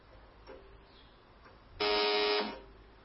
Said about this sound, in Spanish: Será ella. Suena el timbre.